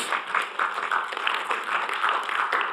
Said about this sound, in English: Today we celebrate the advent of peace because the faithfulness of our God. Amen? Amen. Give, give Jesus, give our Savior an applause.